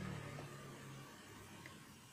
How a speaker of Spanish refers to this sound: Esperamos a que la moto pase